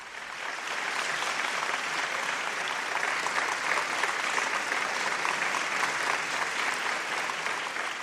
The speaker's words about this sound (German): Oh Achtung, ich höre schon den Beifall. Das Konzert ist zu Ende.